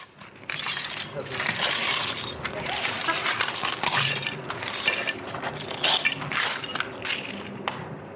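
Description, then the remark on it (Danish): Footsteps crunch through a bed of discarded broken glass in the glass yard of Amager Resource Center, a dense, continuous gritty crackle with sharper clinks of shards scattering, fairly loud, lasting for several seconds. “Jeg har nu øh, bevæget mig ud af studiet og øh, går rundt på, øh, på Glasgård her på Amager Ressourcecenter.”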